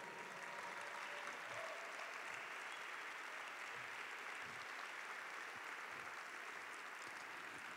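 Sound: audience applauding loudly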